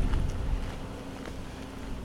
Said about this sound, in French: Et là, justement, à propos de voiture, il y a des tracteurs. Et ben voilà, on vient de croiser deux tracteurs.